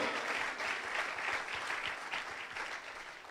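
An audience applauds the Lord steadily, dense overlapping claps forming a continuous bright wash of sound that holds at an even level for a few seconds with no voices standing out.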